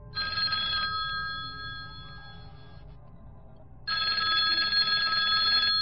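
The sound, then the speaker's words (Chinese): A telephone in front of the sheriff's office in Vallejo, called back by police, rings in two bright, trilling bursts, a short one and then a longer one after a pause, over a steady low background hum with no voices. “凶手居然还在，可能是被不期而至的铃声吓了一跳。”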